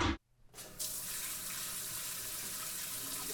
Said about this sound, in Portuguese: A menina abriu o chuveiro e as primeiras gotas começaram a cair.